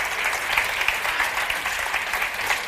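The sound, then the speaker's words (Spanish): Sustained applause from an audience, a dense, steady patter of many hands clapping at an even, fairly loud level throughout, with no voices standing out. “Hombre, pero que, los que os venid, que os vean, que os aplaudan.”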